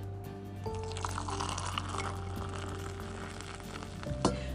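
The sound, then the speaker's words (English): Coffee pouring into a favorite mug from Sacred Grounds Cafe in Ruidoso with XOXO on the front, a steady, continuous liquid trickle with a faint hiss and a shifting tone as it fills, ending with a brief louder splash or clink. No one speaks. “But first, let's have some coffee.”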